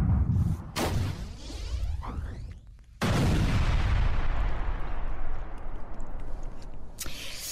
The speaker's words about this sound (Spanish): Bueno, seguimos con nuestra explosiva, eh, literalmente eh, explosiva historia sonora, porque les vamos a platicar, pues, de esto, ¡pum!, de explosiones. Em, a la distancia pueden ser un espectáculo, ¿no?